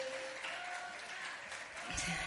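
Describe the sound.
An audience claps steadily, a dense, even wash of many hands applauding at a fairly constant level for a couple of seconds, with a brief murmur of voices underneath toward the end.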